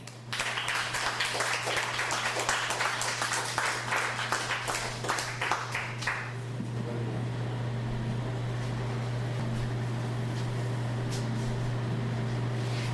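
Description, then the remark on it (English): An audience at a poetry reading claps steadily for about six seconds, then the applause tapers off and leaves only a low, constant electrical hum. “Let's give Alyssa Cooper another hand.”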